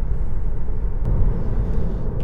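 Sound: electric car driving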